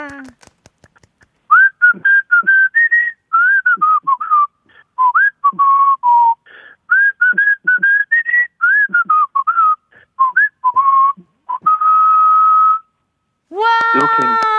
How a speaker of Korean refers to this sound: 휘파람을 어떻게 불어요? 저는 이게 잘 안 나오는데.